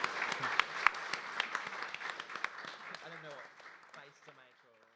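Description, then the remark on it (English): An audience at the 2019 Newcastle Writers Festival applauds its guests at the end of a session, with dense, steady clapping that gradually thins and fades, while voices start speaking over the last few seconds. “So, can you please join me in thanking our guests today, Rosalie Ham, Christian Thank White, you.”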